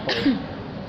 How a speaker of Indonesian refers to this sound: Aduh, batuk.